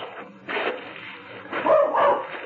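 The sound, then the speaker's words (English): A small dog named Tippy barks in a few sharp, yappy bursts, fairly loud, with brief pauses between them on an old, muffled-sounding recording. “Everywhere you go, dogs are poison.”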